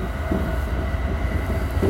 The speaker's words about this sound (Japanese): まあこんな列車に乗ってね今揺れて、えー、走ったんですけおなんか雑木林だやっぱ田舎だね宇都宮線の方がだってまだ乗って20分ぐらいねえ30分ぐらいか